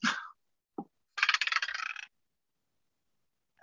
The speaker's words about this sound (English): well, that's a four. So my dice almost went off the table too.